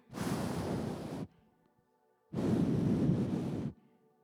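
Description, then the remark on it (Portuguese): Two loud bursts of strong roaring wind, each rushing for over a second with a brief quiet gap between them, broad and hissing like a powerful gust. “De repente, sabe quando o vento é tão forte que faz barulho?”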